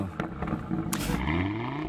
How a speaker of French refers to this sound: Il aime les voitures parce qu'elles ne parlent pas et qu'elles vombrissent.